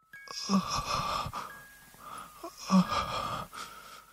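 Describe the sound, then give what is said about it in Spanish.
A ghostly, breathy moaning cry rises twice from under a bed, each wail lasting about a second with a short pause between, eerie and wavering, with no talking over it. “Todavía estaba sentado en la cama y se escuchó un ruido abajo de la cama, como un llanto o un gemido.”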